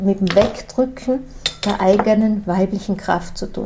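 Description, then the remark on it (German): Light clinks and rattles of small objects, like cutlery or dishes, being knocked about by a cat, scattered irregularly beneath a woman speaking steadily in the foreground. “Die Hintergrundgeräusche, die du gerade hörst, das ist meine Katze.”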